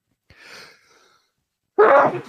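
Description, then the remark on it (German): A soft, breathy intake of air, then a pause, then one loud sneeze that bursts out sharply and fades quickly. No talking. “Gesundheit. Oh, danke.”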